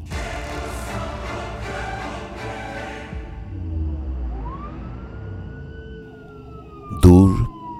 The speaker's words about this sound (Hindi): police का siren सुनाई दे रहा था लेकिन वो मेरे पास नहीं आ रहे थे वो कहीं और जा रहे थे